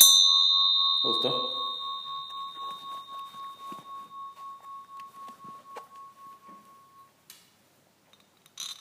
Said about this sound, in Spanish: ¿Qué es eso? Una campana.